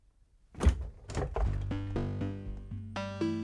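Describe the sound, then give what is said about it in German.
A refrigerator door opens and a milk bottle, a quark tub and a horseradish jar are gathered out of it: a few dull thunks and knocks, followed by a sustained, buzzing tonal hum that steps up and down in pitch. No one speaks. “Herr Burczyk öffnete den Kühlschrank und räumte schweigend eine Milchflasche, eine Quarkdose und ein Meerrettichglas zusammen.”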